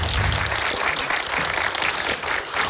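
Audience applause for a speaker who has just become a doctor fills the whole stretch, a dense, steady wash of many hands clapping at a fairly loud, even level with no voices standing out.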